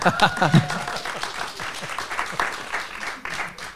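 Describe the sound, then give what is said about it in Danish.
A studio audience breaks into sustained applause, a dense crackle of many hands clapping at once, with a few voices briefly audible at the start. “Men vi er in front of a live audience, og jeg har slet ikke hørt dem endnu.”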